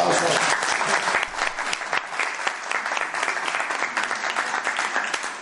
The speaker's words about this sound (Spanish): Gracias. Guapa. Un aplauso para